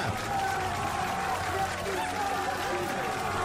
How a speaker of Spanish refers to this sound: ¡Otro aplauso! ¡Viva!